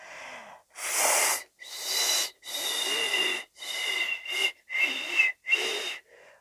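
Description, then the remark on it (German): A series of about seven breathy, airy blows in quick succession, each a hissy puff with only a faint hint of pitch, as someone who cannot whistle tries to whistle to call a pigeon, fairly loud. “Oh, Oh, ich kann ja gar nicht pfeifen. Na gut, ich probiere es nochmal.”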